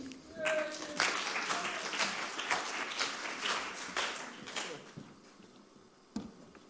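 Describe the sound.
An audience claps and applauds steadily for several seconds for a volunteer coming up on stage, a dense patter of many hands that gradually thins out, with a few scattered claps and faint voices near the end.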